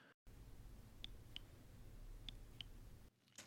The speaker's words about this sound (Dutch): Ja, dat is het geluid van de zaklamp van de iPhone. Sinds de iPhone 10 zit er een zaklampknop op het lockscreen en die maakt een geluidje eh, als je het geluid hebt aanstaan, wat veel mensen eh, blijkbaar niet hebben. Want die herkenden het niet.